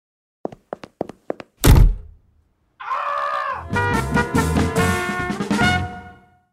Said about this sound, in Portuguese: Fecha a porta ao sair.